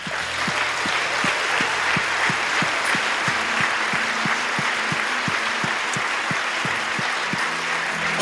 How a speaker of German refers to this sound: Lass uns mal Gott einen richtig großen Applaus geben.